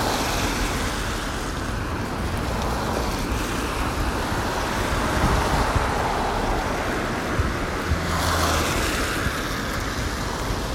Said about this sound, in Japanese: 今日はねあのこの車の音で分かるかと思うんですけど、まあ、ちょっと雨がちなんですよね今雨雨は雨なんですけど傘をささなくてもいいくらいの雨